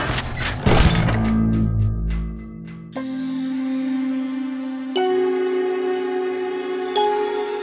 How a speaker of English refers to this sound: The Wendelbot strode across the workshop and threw open the door.